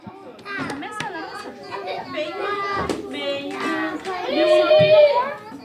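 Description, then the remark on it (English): Toddlers at the Unity Council's Early Head Start program in Oakland, sitting around a table molding Play Doh into dinosaurs, their high-pitched voices babbling, calling out and squealing in overlapping bursts, growing a little louder and more excited toward the end. “Toddlers are sitting around a table molding their Play Doh into dinosaurs.”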